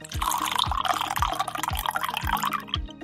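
Freshly brewed coffee being poured out for the speakers, a steady splashing stream with soft rhythmic glugs about twice a second, and no one talking.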